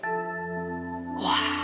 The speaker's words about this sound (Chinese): 柚子味道的虾球端上来了，…打了一个饱嗝。